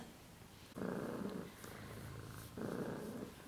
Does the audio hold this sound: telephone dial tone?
no